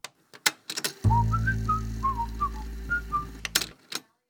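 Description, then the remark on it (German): A short placeholder tone played in place of third-party music content, lasting under three seconds: a whistle-like melody of separate notes over a steady low drone, fairly loud, with a few sharp clicks just before and after. “Deswegen hört ihr immer, wenn fremde Musikinhalte kommen würden, diesen Ton.”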